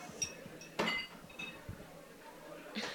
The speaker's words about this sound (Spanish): Ya se les cayeron los platos, creo.